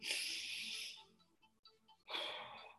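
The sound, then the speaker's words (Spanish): A long, airy breath drawn in, then a pause and a second strong, rushing breath pushed out, both broad and hissy with no talking. It is the first of five breaths in a guided breathing exercise. “Vamos a hacer cinco respiraciones de nuevo, ¿ok?”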